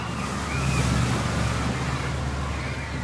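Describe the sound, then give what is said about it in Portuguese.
A jet ski engine drones steadily over the wash of ocean waves and gusting wind, the low rumble swelling slightly as it passes, zigzagging and making risky maneuvers toward young bathers off Serrambi beach in Ipojuca, on the southern coast of Pernambuco. “Da areia, os pais conseguiram ver surgindo pouco a pouco um jet ski, zigue-zagueando na água calma.”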